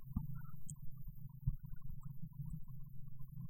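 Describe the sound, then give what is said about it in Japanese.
Muffled rumbling and scraping of an L-shaped, bendable microphone arm being bent from straight and repositioned to point toward the speaker's mouth, with a couple of soft low thumps partway through and no talking. “それちょっとマイクの位置調整しますね。ちょっと雑音、ノイズ入りますけども。”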